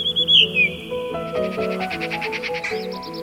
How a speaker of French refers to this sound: c'est une mélodie bien nette et aiguë, sifflée par un oiseau chanteur, aucun doute, c'est un merle.